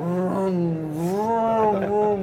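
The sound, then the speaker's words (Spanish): A voice imitates a stuck police car's straining engine revving, a continuous droning hum that rises and dips in pitch for about two seconds, fairly loud. The police car is stuck in a forest in the Netherlands. “Nos amarran, lo empiezan a empujar y todo, lo amarran, todo lo empiezan a, empiezan a sacar y de repente se escucha el coche policía”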